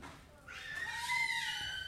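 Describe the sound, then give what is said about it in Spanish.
A child's high, drawn-out scream rises and wavers for a couple of seconds, thin, heard in the background on its own without talking over it. “niño como el que está ahí atrás gritando.”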